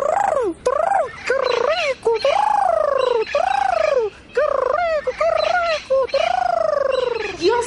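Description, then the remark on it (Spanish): A parrot squawks and calls loudly, a near-continuous run of harsh, rising-and-falling cries with only brief pauses between bursts. “Ese emplumado debe andar por aquí en la cuadra. Si ahorita lo escuché cantar.”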